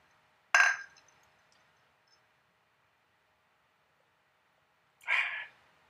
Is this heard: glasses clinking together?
yes